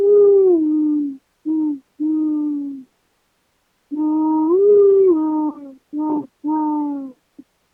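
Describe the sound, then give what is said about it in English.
A person's voice imitates the hooting call of a bird heard in Los Angeles, mostly in Hollywood, giving a series of soft, breathy hoots in two phrases separated by a short pause, fairly loud, with no other sounds. “Do you know that in Los Angeles there's this one bird, and I, I hear it in Hollywood mostly, but it's in the city, and it goes, I guess it goes, Ooh.”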